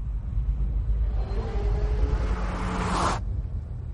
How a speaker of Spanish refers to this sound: Y cuando se aleja, el ruido del motor disminuye. Este fenómeno se llama efecto Doppler